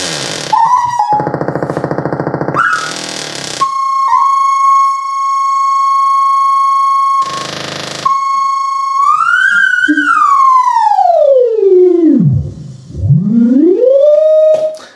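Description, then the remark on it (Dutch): A flute-like tone from an Indian Resonator synthesizer module: airy noisy bursts alternating with a long steady held note, then the pitch swoops down in a deep dip and glides back up. No talking. “Dan hebben we hier een Indian Resonator.”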